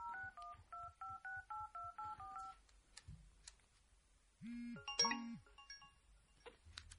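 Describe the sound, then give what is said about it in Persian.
A quick run of about eleven evenly spaced touch-tone beeps as a number is dialed, followed by a low hum, then layered electronic tones and chimes from the phone line. “خب این میسکال هم دارم بزنم کیه اگه گذاشتی من تماس بگیرم”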